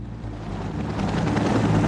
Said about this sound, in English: Helicopters taking off after midnight had the frightening look of a combat mission, and this is a war zone.